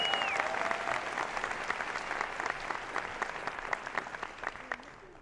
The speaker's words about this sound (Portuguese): Então, por favor, uma salva de palmas